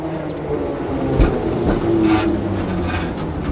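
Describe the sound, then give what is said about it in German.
Trams rattle and rumble past on a busy street, the Ostertor Steinweg in Bremen, with steady low traffic noise and occasional clanks and hisses from the rails, continuous. “Wir hören ab und zu die Straßenbahnen rattern und genau.”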